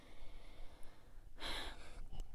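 A single sharp gasping intake of breath, quick and airy, followed by a softer breathy exhale, with no talking over it.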